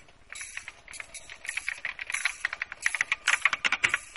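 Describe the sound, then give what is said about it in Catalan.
Rapid, irregular clicking of keys on a computer keyboard, a steady flurry of typing that grows slightly busier toward the end, with no voices. “Molt bé, ara el que et demanarem és que vagis cap al que nosaltres veiem com el punt vermell i tu escoltes com un teclat d'ordinador.”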